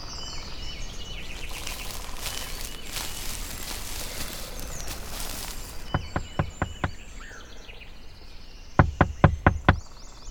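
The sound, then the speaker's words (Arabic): Two sharp bursts of knocking on the door of the lion's house in the forest as the elder animals arrive, each a quick run of about five raps, heard over a background of birds and chirping insects with no one speaking. “من هناك؟ نحن يا أسد افتح الباب”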